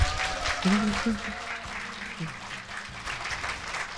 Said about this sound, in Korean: 앞으로 인생에 박수 한번 부탁드립니다.